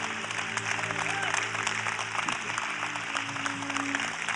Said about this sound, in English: Come on. Cheer them on as they come. I want you to cheer them on as they come.